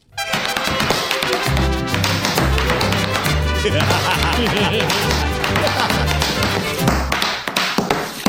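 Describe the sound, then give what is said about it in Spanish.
Rapid, rhythmic boot taps from a person dancing in a pair of boots ring out loud over lively music, a busy stream of percussive steps running through the whole stretch. “Fíjese que cada vez que escucho música, o más bien dicho, cada vez que las botas escuchan la música, no puedo dejar de bailar.”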